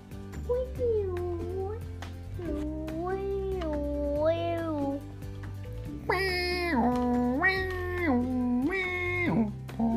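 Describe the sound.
A child's voice imitates an ambulance siren with a sustained wail that rises and falls in repeated cycles. It turns louder and higher-pitched for the second half, over a steady low background hum.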